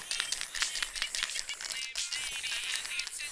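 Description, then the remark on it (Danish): A graffiti spray paint can is shaken hard at a skateboard ramp, its mixing ball rattling in a fast, steady metallic clatter that runs almost continuously, with one brief break before resuming, as a silver and black throw-up is being painted. “Så vi står med de her graffiti-dåser,”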